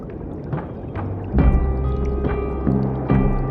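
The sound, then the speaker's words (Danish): Water splashes and drips in irregular bursts, with a few heavier sloshing hits and sustained low liquid rumble underneath, moderately loud. “Og så er der vand overalt.”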